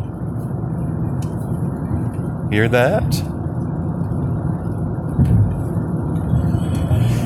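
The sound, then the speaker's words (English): Steady rain falls on a cloudy, 60-degree Friday morning as a continuous low, rushing wash of noise, with a brief spoken voice rising over it near the middle. “Well, it is cloudy, and as you might be able to hear in the background, it is raining.”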